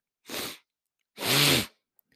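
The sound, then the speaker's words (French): Two hard, congested sniffs through a blocked nose, made to try to unblock it, the first short and the second longer with a rough, slightly throaty edge, separated by a brief pause, with no talking. “Je me mouche un peu là, enfin je me mouche pas, je, renifle pour essayer d'avoir le nez un peu moins bouché parce que j'ai l'impression que je parle du nez.”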